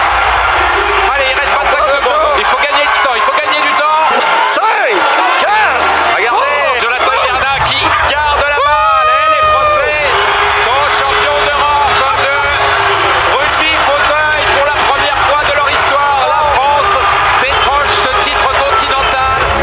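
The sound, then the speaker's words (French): A dense crowd hubbub at a wheelchair rugby match between France and England, many voices overlapping with shouts and squeaks rising and falling, loud and continuous throughout, with brief sharp whistles or squeals near the middle. “C'est le match que tout le monde attendait, on y est.”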